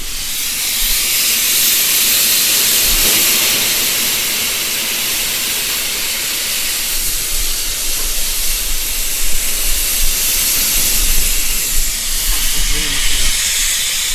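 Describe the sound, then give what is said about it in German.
Steam hisses steadily into a locomotive, a loud, broad rushing sound that continues through the whole stretch, with low mechanical rumbling and faint knocks underneath and no voices. “Es strömt Dampf in die Maschine.”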